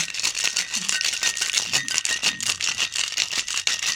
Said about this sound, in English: And then I'm going to shake this the heck out of it with some ice so that it gets really nice and chilled down for summer.